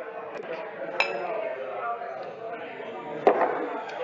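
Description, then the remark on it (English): Two bright glass clinks ring out a couple of seconds apart, like glasses touching in a toast, over a low murmur of voices and room noise. “Cheers one last time.”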